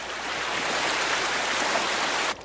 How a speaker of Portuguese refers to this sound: Água da represa.